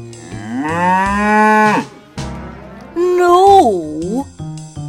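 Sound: cow mooing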